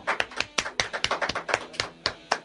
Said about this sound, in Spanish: Yeah, totalmente en vivo. fuerte el aplauso.